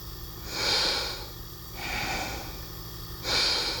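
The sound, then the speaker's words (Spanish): Three slow, hissing breaths through a nebulizer as medicine is breathed in, each a soft airy whoosh with a faint steady hum underneath, evenly spaced, with no talking. “Suena como que está respirando.”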